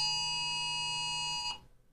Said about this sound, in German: was war das? Oh Gott, das Notfallalarm. ja, ja, das ist normal. Heute oh mein Gott. Ich wusste gar nicht, dass mein Handy solche Geräusche macht. Ja, die nutzen, die, die testen das alle gerade durch.